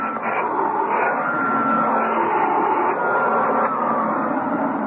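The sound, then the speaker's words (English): A vacuum cleaner runs steadily for the whole stretch, vacuuming cat lint off a carpet in a home, a loud mechanical roar with a faint whine over it and small shifts in pitch as it moves across the carpet. “Just give me a minute to vacuum the cat lint off this carpet.”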